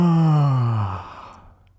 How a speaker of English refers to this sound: so the sound is not very strong, but I think you can imagine the action. It's called a yawn. That's Y A W N, yawn.